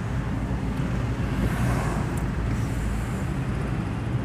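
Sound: car interior driving noise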